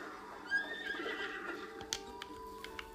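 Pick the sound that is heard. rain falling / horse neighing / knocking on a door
horse neighing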